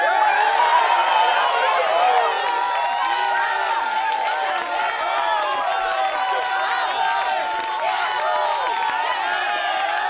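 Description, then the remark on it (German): A crowd cheers and shrieks continuously for the eighth birthday of the website Planeturnia. Many high, excited voices overlap in a loud, steady wall of celebratory noise, with scattered squeals throughout. “Kreisch, Gröhl, genau.”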